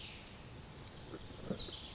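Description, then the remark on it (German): Quiet outdoor ambience in a forest clearing, with faint high bird chirps and calls scattered over a soft, steady background hush; no one speaks. “Es war sehr schön hier draußen in, in der Lichtung, auf der Lichtung”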